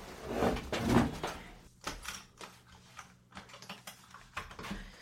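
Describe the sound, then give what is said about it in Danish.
Clunks and rattling clicks as windows are shut and a door is opened in a studio, a busy run of sharp knocks and latch sounds over a few seconds, with no one talking. “Men hvis du lukker vinduer, så åbner jeg døren.”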